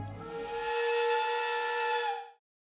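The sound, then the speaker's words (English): A single loud, sustained steam whistle blast at 7 a.m., signalling the start of the workday, with a breathy hiss beneath its bright, steady tone, holding for about two seconds before cutting off abruptly into silence. “Then, at 7 a.m. on the dot, a whistle blast sounded.”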